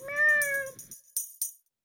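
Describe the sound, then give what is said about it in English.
Kit the cat gives one clear, drawn-out meow, its pitch sliding slightly downward, followed by a couple of short, sharp clicking taps and then silence. “Kit the cat liked it too.”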